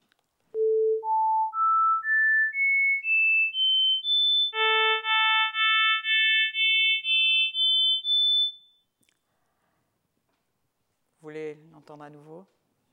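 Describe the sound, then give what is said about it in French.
A series of pure single-frequency beep tones steps upward in pitch, followed by repeated harmonic tones that gradually lose their lowest harmonics and grow thinner: from the second harmonic tone the fundamental frequency is removed, then the second harmonic. A voice briefly speaks near the end. “Alors, d'abord la suite des sons monofréquentiels, puis les sons harmoniques, avec au fur et à mesure perte des harmoniques les plus basses.”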